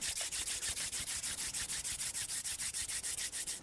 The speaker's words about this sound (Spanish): Gentilmente frota las palmas de tus manos.